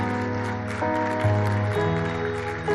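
A crowd applauds for God, clapping steadily in a dense, crackling wash of applause while sustained keyboard chords shift underneath. No one speaks.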